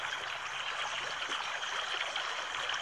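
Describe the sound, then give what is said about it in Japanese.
A clear river stream, so clean the bottom can be seen, flows steadily and continuously, a dense, bright rush of water with fine burbling detail, even in loudness throughout, with no voices. “すごい綺麗な川の映像でもう水の底まで見えますよ、みたいな。”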